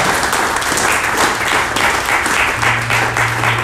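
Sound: audience applauding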